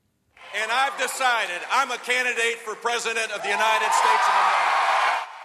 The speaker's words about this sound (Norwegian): Floridas populære guvernør fra 1999 til 2007 blir møtt med enorm jubel i en forsamling der mange har spansk som morsmål.